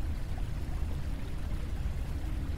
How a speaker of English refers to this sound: Like a lot of running water. Like a waterfall. That doesn't sound very stuck.